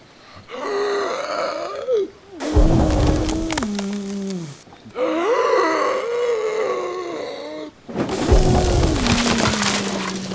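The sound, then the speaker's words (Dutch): Twice, a long, wavering groan-like blowing sound of a wolf blowing a little pig's hut apart is followed by a loud, noisy crash of wood cracking and splintering apart, each crash rumbling for about two seconds. “Prima, dan blaas ik en proest ik maar en zo blaas ik jouw hutje uit elkaar.”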